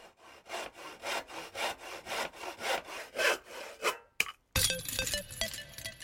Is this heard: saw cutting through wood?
yes